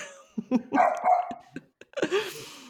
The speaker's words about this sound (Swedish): Oj, nu hör jag lite hundar i bakgrunden där. Ja, nej, han är här också.